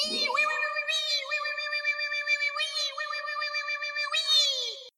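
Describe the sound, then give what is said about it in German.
A high, piping small wooden whistle, blown while running through a forest, howls in one long sustained tone, wavering slightly and swelling in brightness a few times, loud and alone with no voices. “Außerdem machen die alle seltsame Geräusche beim Rennen und zwar blasen die in so kleine Holzpfeifen rein, die ganz weit durch den Wald heilen.”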